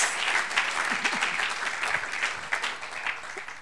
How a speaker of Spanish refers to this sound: Ah, gloria a Dios, démosle un aplauso al Señor. Gloria a Dios.